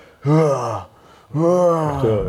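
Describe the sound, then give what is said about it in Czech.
A voice imitates the straining grunt of someone lifting weights at the gym: two loud, drawn-out, tense groans, the second longer and rising in effort, with no words spoken. “a jako tohle řvaň.”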